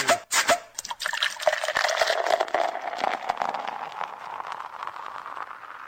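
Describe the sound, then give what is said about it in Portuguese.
A drink pours steadily into a glass, a continuous bubbling trickle whose pitch rises as the glass fills, with a few sharp clinks at the start. “Bota de novo, esse é som refresca a alma minha garganta.”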